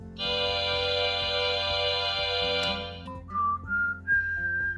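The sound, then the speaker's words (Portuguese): Dominant seventh chords in first inversion (notes B, D, F, G): a bright, organ-like chord held steadily for about three seconds, then shorter notes sounded one after another, stepping upward in pitch. “Vamos ouvir então acordes de primeira inversão da sétima dominante.”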